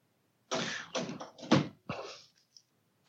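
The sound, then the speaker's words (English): A door being shut, with a quick series of rattling bumps and a couple of solid thuds over about two seconds, then quiet. No one speaks. “shut the door.”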